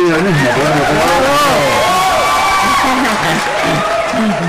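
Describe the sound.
Steady applause fills the whole stretch, a dense, even clatter of many hands, with raised voices and cheers riding over it throughout.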